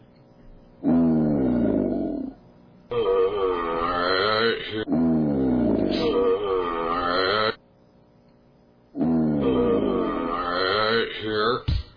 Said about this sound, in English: Here's an alligator beller.